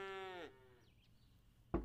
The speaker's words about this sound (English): But the only signs of life were the feeble groans of the starving cows.